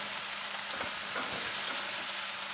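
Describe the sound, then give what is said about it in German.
Chicken pieces sizzle steadily in a hot pan, a dense crackling hiss with a few soft stirring knocks, no voices. “Aber, was wir jetzt machen, jetzt machen wir gleich ein Foto von der Pfanne mit den Hühnerteile und kosten das dann.”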